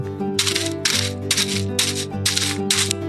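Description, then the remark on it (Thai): Five loud, evenly spaced stomps as a mother kangaroo stomps the ground to make a loud noise, pounding out a steady rhythm over a sustained musical background, each impact crisp. “แม่จิงโจ้อยากจะวิ่งหนีทิ้งเข้าไป แต่เธอก็ทำไม่ได้ เธอต้องปกป้องเขาแม่จิงโจ้จึงกระทืบพื้นให้เกิดเสียงดัง”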